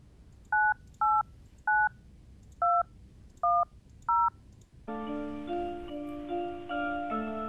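A telephone number being dialed during a radio music station's phone-in segment: six short, two-toned keypad beeps at an uneven pace, then a loud, sustained buzzing sound with many layered pitches takes over.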